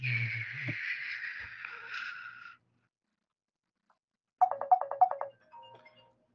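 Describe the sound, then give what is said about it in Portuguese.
A phone ringtone chirps in a quick burst of rapid pulsing tones, followed by a softer trailing melody, after a stretch of sustained background noise and a brief silence. “Desculpa, vou ter que atender aqui, dá uma pausa aí.”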